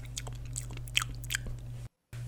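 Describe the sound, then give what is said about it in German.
Wet mouth smacking and chewing noises, a rapid series of sticky clicks and crunches over a steady low hum, cutting out briefly near the end. “Die schönen Schmatzer.”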